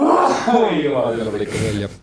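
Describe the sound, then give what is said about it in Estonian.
A fairly loud sneeze bursts out near the end, following a stretch of laughing voice. A single sharp, breathy burst, then brief silence. “tervist.”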